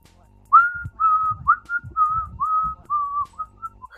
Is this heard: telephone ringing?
no